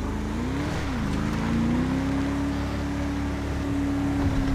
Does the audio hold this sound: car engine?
yes